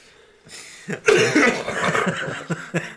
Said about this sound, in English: Oh man, I'm coughing up an oyster.